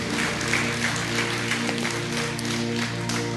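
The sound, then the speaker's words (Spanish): A church audience applauds the Lord steadily, a dense wash of many hands clapping at once that holds an even loudness throughout, with a sustained low musical tone humming underneath. “Da un aplauso al Señor.”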